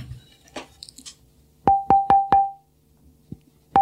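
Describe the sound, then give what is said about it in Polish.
Four quick, bright knocks on a 150-year-old seasoned spruce luthier's wedge, nearly triangular in cross-section, ring out with a clear bell-like tone that lingers, followed after a pause by one more resonant tap, fairly loud. “Tu mam akurat kawałek świerku i proszę posłuchać, jak to brzmi już w tej chwili.”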